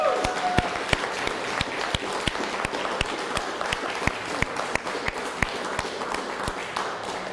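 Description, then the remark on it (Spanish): Loud, sustained audience applause given to Shem (God), filling the whole stretch, a dense wash of many hands with a steady, rhythmic clap beat standing out through it. No one speaks. “Pero un fuerte aplauso a Shem.”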